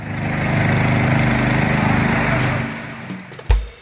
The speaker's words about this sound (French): et dans un quartier de travailleurs migrants de Pékin, un employé désinfecte une route à grands coups de jet d'eau.